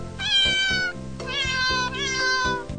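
A cat meows three times in a row, each call long and drawn out and loud, with a soft rhythmic thumping underneath.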